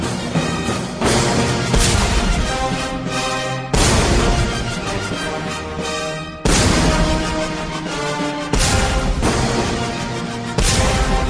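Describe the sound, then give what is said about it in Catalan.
A full orchestra plays an overture loudly while about five real cannon blasts boom out every two to three seconds, each a sudden, forceful crack layered over the sustained music. “Sí, són canons de veritat.”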